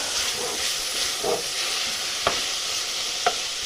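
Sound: food sizzling and frying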